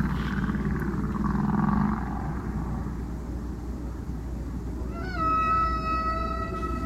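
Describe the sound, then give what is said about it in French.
Humpback whale song echoes underwater, a long rising moan early on, then tonal calls with harmonics near the end, all over a steady low ocean rumble with deep, spacious reverberation caused by the depth of the water. “Là, par exemple, sur, cet enregistrement, on peut entendre euh, une, réverbération qui est due à la profondeur de l'eau donc contrairement à mes enregistrements à Madagascar qui sont faits dans 30-40 mètres de profondeur,”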